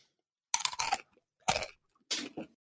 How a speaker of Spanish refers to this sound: Estoy abriendo mi paquete de semillas. Ah, semillita.